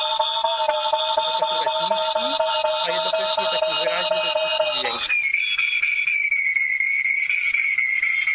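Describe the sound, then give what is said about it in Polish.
A layered electronic drone suddenly gives way to a single clean, high-pitched tone from an echolocation device set to a 5-metre range and played through a speaker, the tone reflecting off the ceiling; it holds steadily with slight wavering until the end. No one speaks. “A ten wysoki dźwięk, wtedy czysty, to jest sufit.”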